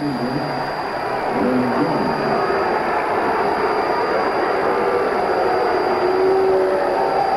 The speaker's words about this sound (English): Now you can hear some of the uh, Oakland fans uh, getting on uh, Mr. Durwood Merrill, the third base umpire